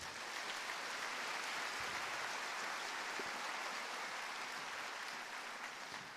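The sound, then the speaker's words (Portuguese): An audience applauds for Jesus steadily, a dense, even wash of many hands clapping together that holds at a constant level for several seconds without any voices. “Quem pode dar uma salva de palmas para Jesus aí?”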